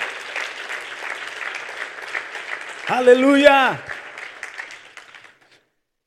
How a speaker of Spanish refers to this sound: Ahora sí, dale un aplauso al Señor, aleluya. Amén.